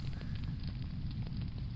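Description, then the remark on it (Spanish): A bonfire crackles and roars steadily, with a deep rumbling base and scattered sharp pops and snaps flickering throughout. “Venga, Vamos a encender esa hoguera y vamos a escuchar a ….”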